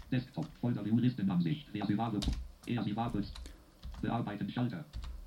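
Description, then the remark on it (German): A few sharp computer keyboard key presses click, scattered irregularly while a man talks steadily over them, as he saves a file with Ctrl+S. “Wir speichern die Datei ab, Ctrl S und starten vom Desktop aus das Programm EasyWave.”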